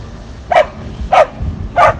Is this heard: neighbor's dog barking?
yes